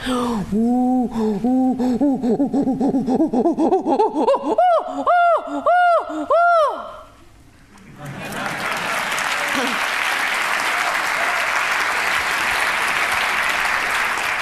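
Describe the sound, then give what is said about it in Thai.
Jane Goodall vocally imitates a chimpanzee greeting as from the forests of Tanzania: a series of rising breathy hoots that build into loud, rhythmic pant-hoot calls, then give way to enthusiastic applause from an audience. “And so I want to give you a greeting as from a chimpanzee in the forests of Tanzania.”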